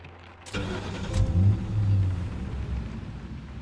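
A car engine cranks and catches after a sharp mechanical click, then settles into a steady low rumble as it idles for a few seconds, as someone gets into the car to drive home.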